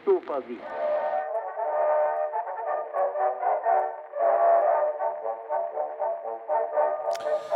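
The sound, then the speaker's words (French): A brass band plays the Habsburg march, a steady military march, its full horn chords swelling and pulsing in a regular rhythm from start to finish, loud, with a brief clash at the very end. “Et l'on entend en ce moment la marche des Habsbourg”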